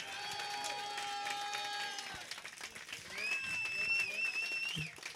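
An audience applauds the evening's VJs steadily for about five seconds, a dense wash of clapping mixed with crowd cheering and a few sustained high whoops rising above it.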